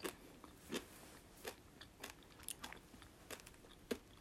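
Crisp crunching of a hard grape-flavored snack being chewed, with sharp bites landing roughly every half second in an irregular rhythm, quiet between crunches and no talking.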